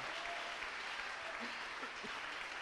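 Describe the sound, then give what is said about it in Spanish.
Sustained applause from an audience, a dense steady wash of many hands clapping at an even level for a few seconds, with faint voices calling out underneath. “el aplauso no es un halago al ministro, es una ovación a la palabra.”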